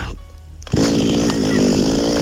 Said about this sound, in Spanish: ¡Oh, qué ronroneo tiene mi motosierra! en el campo solito, al aire fresco.